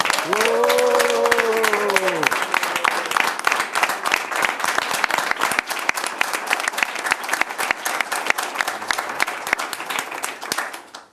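A large crowd applauds the group from Rishon LeZion, clapping steadily for about eleven seconds, dense rapid clapping with a brief cheer or whistle in the opening seconds, then fading at the end.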